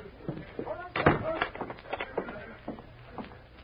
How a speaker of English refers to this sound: I'll lock the door.